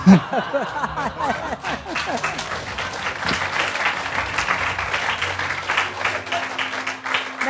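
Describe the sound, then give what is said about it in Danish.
An audience breaks into sustained applause, a dense patter of many hands clapping steadily for several seconds, with some laughter and crowd murmur mixed in at the start. “men altså, øh, jeg kan godt høre, at der bliver klappet af det kan jeg så godt forstå.”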